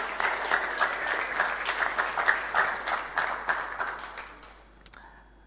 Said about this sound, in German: Yes, einen zweiten Applaus für unsere Ranger. Richtig stark.